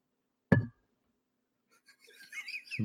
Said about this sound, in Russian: Чокнемся.